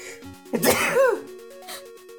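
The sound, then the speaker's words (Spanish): A single loud sneeze bursts out over soft background music, a short sharp blast with a brief voiced tail before the music carries on alone. “Salud. Ay, disculpe usted.”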